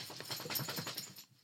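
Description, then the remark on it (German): A dog shakes itself off: a quick, rhythmic flapping rattle lasting about a second, with a faint metallic jingle, then it stops abruptly. No one speaks. “das war der Hund. Der Hund schüttelt sich.”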